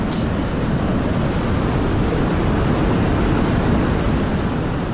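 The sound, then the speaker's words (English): A loud, steady roar of rushing water as a boat sails into a waterfall, filling the whole stretch with dense, unbroken hiss and rumble. No voices are heard. “I'm sailing toward the waterfall.”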